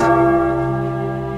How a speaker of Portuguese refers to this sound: Olha o sentido da esmola, escuta, toca o sino, sacristão.